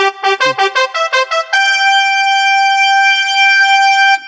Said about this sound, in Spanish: Bueno, eh, un corneta hizo sonar esta alarma y nada más.